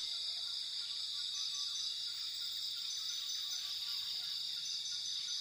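A steady, dense wash of insect chirping fills a rainforest ambience, with a constant high-pitched buzz and faint scattered calls underneath, continuous and even throughout with no one speaking.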